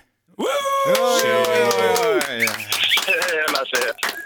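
A small group cheers loudly, long drawn-out whoops and hollers rising together, then breaking into scattered claps and shouts near the end, rowdy and enthusiastic: an ovation for fighter Sadibou Sy, phoned ahead of his match.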